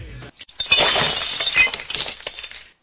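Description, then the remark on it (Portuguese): Glass shatters loudly, a sharp crash followed by a bright spray of tinkling shards that scatter for about two seconds before cutting off. No voices. “Como de praxe, vamos começar aqui a nossa leitura de e-mails no Quebrando o Vidro.”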